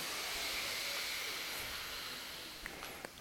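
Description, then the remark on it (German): A slow, steady breath drawn in through the left nostril, a soft airy hiss lasting about three seconds, quiet, with no talking. “Atmet links ein.”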